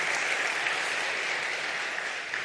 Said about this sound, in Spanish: ¿Cuántos quieren vivir una vida abundante y feliz? Entonces ayúdeme con un aplauso que yo soy el cachaco nuevo.